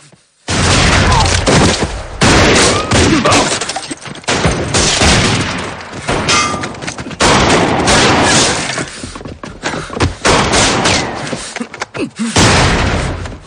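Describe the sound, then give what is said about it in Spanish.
A gunfight in a western film around an alley, as Dan opens fire: loud, rapid gunshots crack and overlap almost without pause for several seconds, a dense, chaotic barrage of sharp bangs with only brief lulls between volleys. “Abre fuego.”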